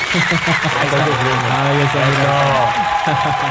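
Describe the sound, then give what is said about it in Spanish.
Steady applause with cheering voices mixed in, loud and continuous for a few seconds, like a crowd clapping and calling out together. “Pero con éxito, que se quedan aplausos de éxito.”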